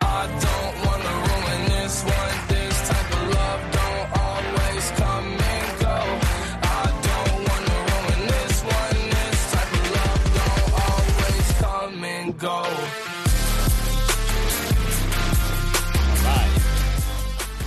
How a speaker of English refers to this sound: Here's a song, …. I'm loving it.